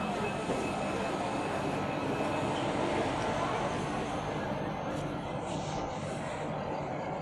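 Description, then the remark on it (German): A train rolls into Felden railway station on a sunny day, a loud, steady rumble of wheels and engine noise that fills the whole stretch with little change, continuous. “Ich bin jetzt am ähm Bahnhof Felden ausgestiegen und gehe jetzt durch die Unterführung”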